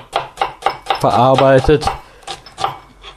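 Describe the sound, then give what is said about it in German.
A knife dices onions on a cutting board in quick, steady chops, about four per second, crisp, with a person speaking briefly partway through. “ich bin jetzt hier dabei, schön die Zwiebeln zu schneiden, wie dann jemand hört”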